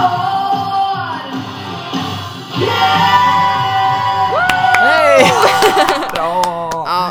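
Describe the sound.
A large audience at a hotel opening, where a man is celebrating his 60th birthday, cheers and shouts, with whoops and raised voices swelling into a loud, dense roar, with a sharp spike of whistling and hollering near the end.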